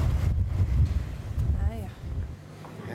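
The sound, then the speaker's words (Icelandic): Heavy wind buffets the microphone outdoors during an interview, a steady low rumbling roar with gusty surges, while a voice briefly sounds in the background. “Já, já, það er ekki þetta að taka viðtal út í þessu vindi, sko.”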